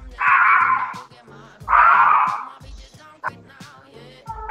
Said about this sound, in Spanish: Bueno, aquí creo que empezó eh, un perro a protestar.